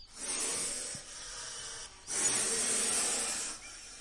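A snake hisses twice in long, breathy bursts, each lasting over a second with a brief pause between. The hiss is loud, with no voices present.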